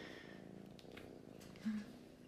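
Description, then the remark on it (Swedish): A soft, steady cat purr rumbles low and continuous throughout, quiet, with a brief slightly louder swell near the end and no talking. “Kurr, kurr hör vi här i bakgrunden.”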